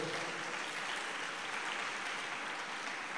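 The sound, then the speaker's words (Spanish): A crowd applauds steadily, giving a round of applause to Jesus at a night religious gathering, a dense wash of many hands clapping at an even, sustained level for a few seconds with no voices standing out. “Dele un aplauso a Jesús, por favor, esta noche.”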